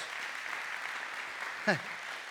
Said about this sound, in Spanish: Entonces dale un aplauso sincero al Rey de Reyes y Señor de Señores. Pero dáselo sincero. Dáselo sincero. Dale un aplauso sincero a Dios.